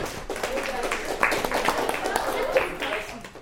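An audience applauds the overall winner in a steady, dense patter of many hands that holds for a few seconds at a fairly even loudness, with some crowd noise mixed in.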